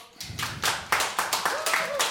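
Brief applause for the live guitarists: a series of sharp, crisp hand claps in quick, slightly uneven succession, moderately loud and steady for about two seconds.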